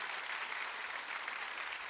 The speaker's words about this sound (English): So whether your kids are in the house or outside of the house, we honor you as well. Yeah, give them a huge round of applause for sure.